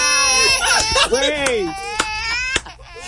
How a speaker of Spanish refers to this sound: Y ese niño gritando, pero oh, oh. bueno, saca ese niño de la eh, cabina.